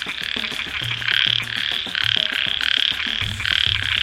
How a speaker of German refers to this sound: Es ist der Frosch.